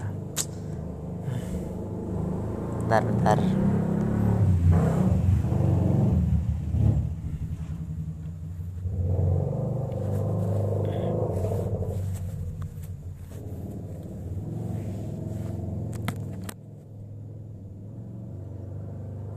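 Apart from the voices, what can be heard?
motorcycle passing by outside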